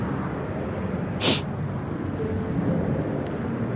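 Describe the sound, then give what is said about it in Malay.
A steady, low rumbling drone of an airplane flying overhead, constant throughout, with a brief hiss of wind or noise partway through. No one speaks. “Kau kat dalam kapal terbang tu ke?”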